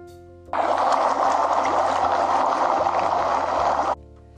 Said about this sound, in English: He filled three pots with water and placed each on a high fire. Once the three pots began to boil,